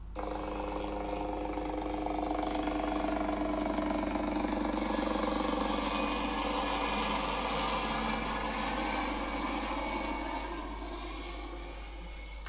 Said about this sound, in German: Das ist kein Flugzeug. Das ist der Hubschrauber. Hubschrauber oder Helikopter. Helikopter und Hubschrauber, beides ist korrekt.